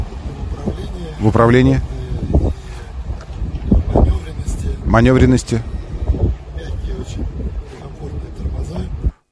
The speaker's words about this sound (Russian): это было не запланировано, поэтому э, ветрозащиты не было на микрофоне у журналистки и так звук.